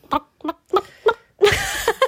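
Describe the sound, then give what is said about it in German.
A voice imitates a clucking hen: four short, evenly spaced clucks, then a longer, louder squawking cluck and two quick final clucks, all fairly loud. “das war eine Henne.”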